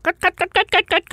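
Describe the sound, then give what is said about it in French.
A person imitates a hen's clucking with seven quick, evenly spaced voiced bursts, fairly loud, in a steady rhythm with no other sounds. “J'aimerais ça pouvoir imiter le bruit d'une poule, mais je suis vraiment très, très mauvaise.”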